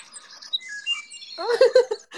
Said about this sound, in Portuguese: Olha o passarinho cantando, que coisa mais linda. Gente, o passarinho, ouvi dizer, é um passarinho, parece que os passarinhos estão tão oriçadíssimos né? menina, hoje.